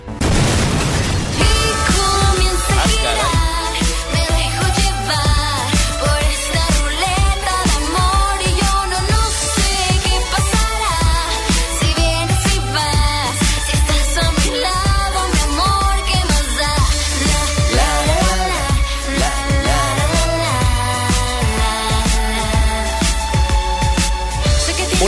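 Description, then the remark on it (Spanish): A pop song plays on FM Globo 88.1 radio, continuously at a steady, fairly loud level, with a driving beat, deep bass and layered melody throughout, and no one talking over it. “Son dos canciones de un artista por un lado y otras dos canciones de otro artista por el otro lado”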